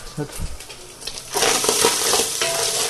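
Thin, evenly cut strips of food crackle and sizzle in a frying pan, unseasoned, with scraping and stirring noises early on before a steady, loud hiss of frying takes over and continues.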